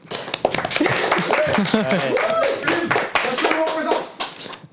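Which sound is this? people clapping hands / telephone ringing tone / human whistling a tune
people clapping hands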